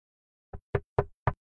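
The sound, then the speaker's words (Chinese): Four knocks on a door with a peephole in a steady, evenly spaced rhythm. Each is a short, solid thud with a low, hollow body, following a brief moment of silence, with no voices. “一阵敲门声，把我的思绪拉回现实。”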